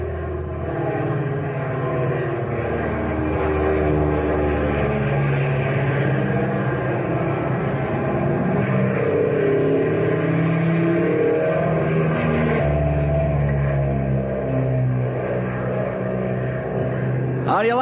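A propeller airplane engine runs steadily and loudly, a thick, continuous droning roar with a deep throbbing hum that holds at an even level throughout.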